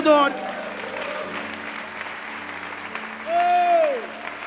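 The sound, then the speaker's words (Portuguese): A church audience at a Portuguese-language service claps and cheers in a steady, dense wash of applause after the preacher calls for a shout and applause to the Lord, with a voice briefly calling out over it near the start and again with a rising shout toward the end. “Dê um brado ao Senhor e aplaudo nesse lugar.”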